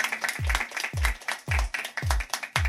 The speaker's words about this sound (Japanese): 一回とりあえず皆さん拍手だけしてもらってとりあえず訳もわからないまま拍手だけしてもらって